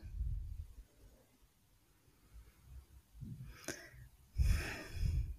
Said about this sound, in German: Dann muss ich einmal atmen hier und Luft holen, weil mir so viele Bilder durch den Kopf gehen von diesem ganzen Wochenende.